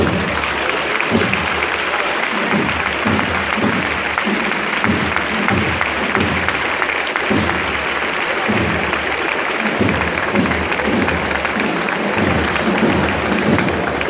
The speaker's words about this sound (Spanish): Ya pues ovación cerrada. Sí, está mal para el final, yo creo eso. La, la, más cerrada de la tarde, ¿eh? de la tarde-noche ya, ¿eh?